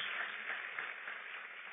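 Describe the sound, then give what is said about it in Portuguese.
A crowd applauds steadily, a dense wash of many hands clapping at once, sustained and fairly loud throughout with no talking over it. “Vamos aplaudir, vamos embora para casa.”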